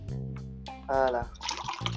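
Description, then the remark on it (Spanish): Someone drinking water: wet sloshing and gulping noises over about two seconds, fairly loud, with no talking. “Estaba calentando, un momento que voy a beber agua.”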